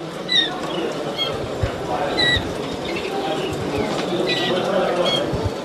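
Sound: canaries singing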